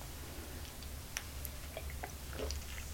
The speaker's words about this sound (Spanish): Después de este buchito sin una gota de azúcar